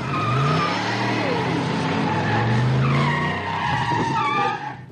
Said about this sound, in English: he pulls out a big remote which controls the car which is awesome and he sends that car away, backs it way up